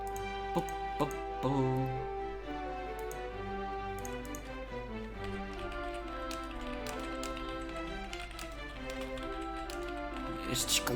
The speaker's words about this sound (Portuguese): cliques de teclado, nota-se que eu nem estou a escrever.